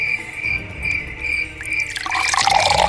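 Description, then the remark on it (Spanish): A steady high-pitched chirring hum runs through the first two seconds, then water begins running or pouring, a loud splashing hiss that fills the final second. “Entonces aparecieron los relojes de agua, o como se les decía en la antigua Grecia, clepsidras, con las que se medía el tiempo a partir del nivel de agua que disminuía de forma constante”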